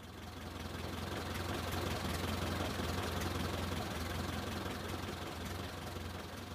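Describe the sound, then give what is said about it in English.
A taxi stopping outside a house door idles with a steady, low engine rumble and a faint knocking throb, holding an even loudness for the whole stretch with no voices. “A taxi is stopping outside our door.”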